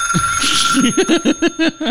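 A mobile phone rings close by with a quick, repeating electronic ringtone, a series of bright pulsing chirps over a steady tone, with no one speaking.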